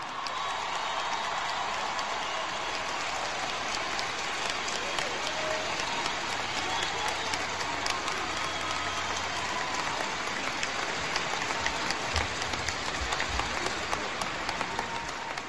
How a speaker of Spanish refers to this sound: Un fuerte aplauso, por favor. ¡Venga!